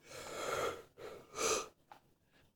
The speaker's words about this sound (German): ist schon am Gähnen.